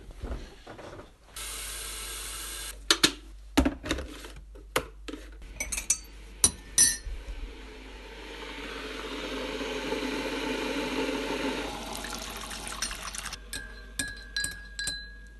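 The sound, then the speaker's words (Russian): Crisp clinks of a cup and spoon ring out in an irregular burst, followed by a few seconds of steady liquid pouring, then a few softer taps as tea is made. “А, знаете, я хочу чай.”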